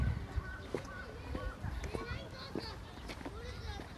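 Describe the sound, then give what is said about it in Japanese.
Small children's high voices chatter and call out outdoors in a park with playground equipment and cherry trees, scattered playful shouts over a steady low rumble of wind and soft movement. “いいね子供に帰りたいとか思う思う思ういいねちっちゃいな子供たちいやいやいやいやかわいい、ね”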